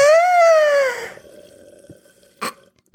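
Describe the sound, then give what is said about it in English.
A loud slurping sip of a smoothie through a straw, starting with a squeaky, slightly falling tone, then softer gurgling and a brief wet gulp near the end. “With as good as this tastes, let me take another sip.”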